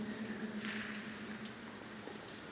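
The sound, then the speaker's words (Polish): A steady, soft rush of running water flows continuously throughout, even and unbroken, sounding somewhat muffled, with no voices present. “Ale to chyba ta woda.”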